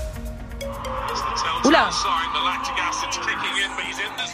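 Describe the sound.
A smartphone voice assistant activates on its own with a brief electronic sweeping chime, sounding midway through while people keep talking and exclaiming over it.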